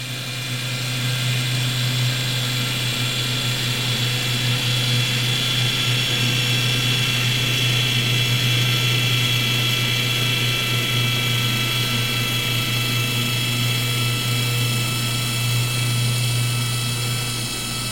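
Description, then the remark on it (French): A small Zodiac outboard pleasure boat, taken out on Sundays for fishing, recorded underwater in the bay of Cavie: a steady, loud engine drone with a low humming tone and whining harmonics, holding constant for the whole stretch with no voices. “Le premier, c'est un Zodiac, c'est un petit bateau de plaisance de quelqu'un qui sortait le dimanche pour, pour pêcher.”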